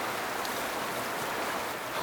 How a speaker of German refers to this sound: Wir erreichen einen Bach, das Wasser ist braun-schwarz vom Lavagestein.